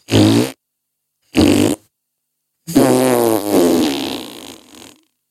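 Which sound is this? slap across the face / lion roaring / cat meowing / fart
fart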